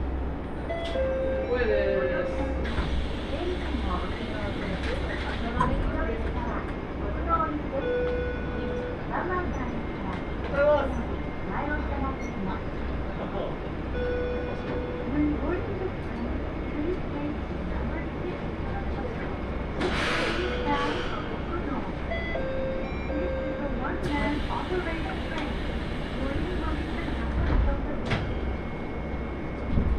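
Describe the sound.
A steady rumble of the Nagara Railway Seiryu Ressha No. 1 train rolling along the tracks between Minami-Kodakara Onsen and Shizen-en-mae, with rattles and clanks from the carriage and occasional squeals, and faint voices murmuring in the background.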